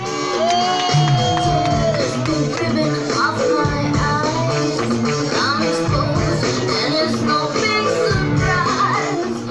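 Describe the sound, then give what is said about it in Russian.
A packed gay club audience in New York cheers and shouts without pause late in the evening while watching a drag performance, loud, with scattered whoops and excited voices rising over a dense, constant roar. “Нью-Йорк, поздний вечер, зал гей-клуба полон, все смотрят представление, публика неистовствует.”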